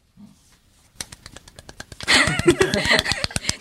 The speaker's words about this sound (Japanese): 届け、アゼルバイジャンにこの拍手。